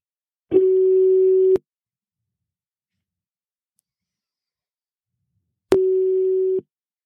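A telephone ringback tone heard while calling a woman: two steady, one-second electronic tones separated by about four seconds of silence, clear, with no voices.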